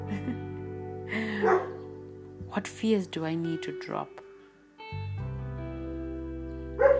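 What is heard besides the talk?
dog barking and yipping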